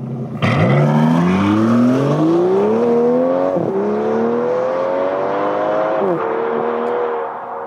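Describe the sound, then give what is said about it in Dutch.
An Aston Martin DB11 engine roars up through the gears, pitch climbing steadily with two brief dips at gear shifts, loud throughout with no talking. “Ja, dit was wel de Aston Martin DB11.”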